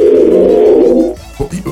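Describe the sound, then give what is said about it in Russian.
Telephone tones heard while dialing a number: a sustained, slightly wavering tone with a creaky, squeaky quality holds steady for about a second, then breaks into a few short irregular chirps and clicks, with no talking. “знаете, какие даже, даже, даже даже даже гудки а стали скрипеть.”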